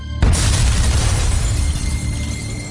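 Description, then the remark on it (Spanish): A bomb hidden in Arab journalists' cameras explodes during an interview, bursting in suddenly after a brief quiet moment; then a loud, deep rumble of debris and roaring noise continues heavily to the end, overwhelming. “Yo estaba ocupado con la cámara y de repente oí una explosión.”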